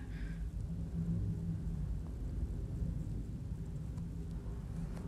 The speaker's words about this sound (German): Oh, im Hintergrund hat man gerade voll Flugzeug.